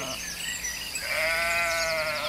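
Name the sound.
sheep bleating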